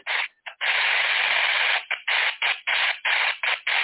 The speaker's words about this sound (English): it sounds like Morse code. Well, see, that's exactly what Marconi and Tesla said. They thought it was Morse code, but when they did the Morse code, it didn't add up to anything. So, and Jimmy and I have already tested it. It's not Morse code.